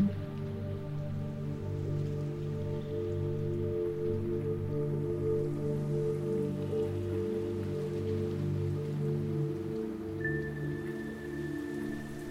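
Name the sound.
rain falling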